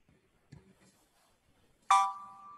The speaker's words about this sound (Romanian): Bipă no, e, vezi că... ceva mesaj. Mi-a dat cineva ceva mesaj.